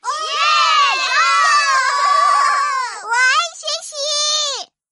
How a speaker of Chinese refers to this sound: 同学们太开心了，一起欢呼了起来。